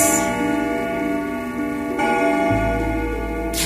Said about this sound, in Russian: Именно в этот момент забили старинные часы в офисе Серебряного Дождя.